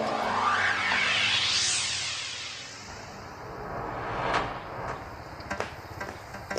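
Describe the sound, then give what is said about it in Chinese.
A shop door being opened by the owner at five o'clock on a summer morning: a loud rattling, scraping sweep that rises in pitch for about two seconds, then settles into a faint hiss with several sharp clicks and knocks. “我记得那是一个夏天，老板啊五点钟就开门了。”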